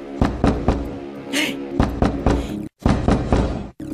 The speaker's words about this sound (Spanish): ¿Quién será estas horas? Y aquella toque y toque la puerta. Ahí estaba aquella mujer a las tantas de la madrugada, desesperada porque iba a pedirle para un 24 la abuelita.